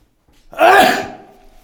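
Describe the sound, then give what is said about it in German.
One loud sneeze bursts out suddenly after a short quiet moment, then fades away over about a second, with no talking around it. “Jetzt war ich gerade abhängig davon, niesen zu müssen.”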